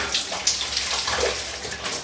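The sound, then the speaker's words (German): Water pours steadily into a bathtub, a continuous rushing hiss with small splashy bright spots, no voices over it. “Ah, jetzt muss erst noch ein bisschen Wasser reinlaufen.”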